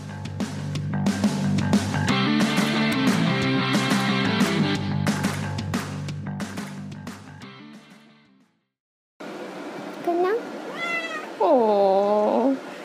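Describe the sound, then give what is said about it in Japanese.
A cat, Konyan, meows insistently for attention several times in a row, rising and falling plaintive cries, following a stretch of upbeat music that ends with a brief silence. “寂しかったのシャワー浴びただけじゃん甘えん坊さんなんだからこにゃんは”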